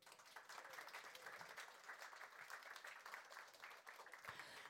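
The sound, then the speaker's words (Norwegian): Steady, sustained applause from an audience for a panel speaker being introduced, an associate professor at the University of Oslo, with dense overlapping clapping filling the whole stretch at an even loudness and no voices heard. “Gi henne en applaus.”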